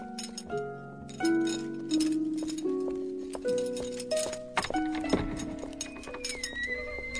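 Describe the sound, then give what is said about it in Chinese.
Horse hooves clip-clop amid footsteps while swords clash, each strike leaving a bright metallic ring that hangs and overlaps; busy and fairly loud throughout, with no talking. “睡了一会儿，公主被马蹄声、脚步声和刀剑碰撞声吵醒了。”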